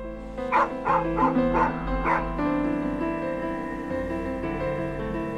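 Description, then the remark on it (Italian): A dog on a deserted beach at Marina di Vecchiano, in the province of Pisa, barks five times in a quick, evenly spaced burst, then falls quiet, all over a steady, sustained musical drone that continues to the end. “Il cane davanti e lui dietro.”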